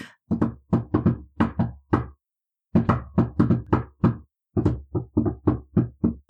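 Sharp knocks on a door in a steady rhythmic pattern, three bursts of about seven raps each, separated by short pauses, with no talking.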